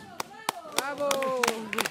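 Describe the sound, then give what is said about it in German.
Scattered, irregular hand claps greet the last arriving pilgrims after their effort, a handful of sharp slaps over two seconds, while several voices call out bravo and talk excitedly over them. “Nach dem Kraftakt werden die Letzten mit Bravo und Beifall begrüßt.”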